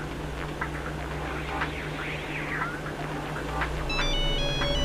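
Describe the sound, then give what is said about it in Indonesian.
A mobile phone kept in a bag rings near the end, its ringtone a bright melodic sequence of electronic beeps over a steady background hum and hiss. No one speaks. “Uh, itu suara telepon yang kemarin bukan ya?”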